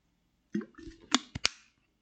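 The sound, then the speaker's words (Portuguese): Someone takes a quick sip of water: a soft slurp followed by a few sharp, wet mouth clicks and a gulp, all brief and fairly quiet, with no talking. “Só um segundinho, um golinho d'água.”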